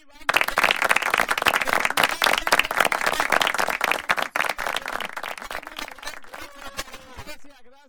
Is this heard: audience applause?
yes